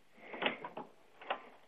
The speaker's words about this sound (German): Bist du das mit der Tür oder sind das die da? Die da.